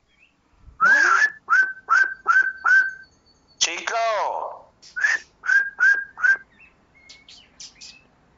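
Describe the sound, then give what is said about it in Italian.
A person whistles a series of short, rising call notes in a steady rhythm to call a bird named Cicco, and the bird answers softly with bright chirps; a brief word is spoken between the exchanges. “Senti che mi risponde. Ma mi eh, lo fa piano, piano.”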